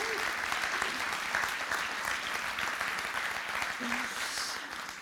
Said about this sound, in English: So, can we just give them one more round of applause?